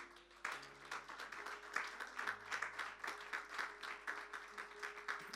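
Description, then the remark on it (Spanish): A large group claps together steadily for several seconds in praise of God, a dense, sustained wash of applause at an even level, with faint low held musical tones humming underneath. “Ahora, si usted tiene confianza al Señor y está agradecida o agradecido, Démosle un fuerte aplauso a este Dios vivo.”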